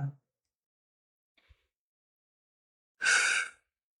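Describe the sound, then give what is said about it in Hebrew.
A single deep breath taken during a guided practice, heard mainly as a breathy, sigh-like exhale lasting about half a second, after a quiet pause with a faint click. “לקחת נשימה אחת עמוקה.”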